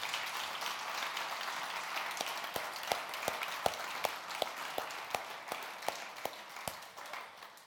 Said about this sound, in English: it'd be good just to honour him today on Father's Day. And we give him a round of applause